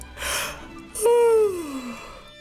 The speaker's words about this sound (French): Puis tu te sens fatigué. Ralentis tes mouvements. Baille un petit peu.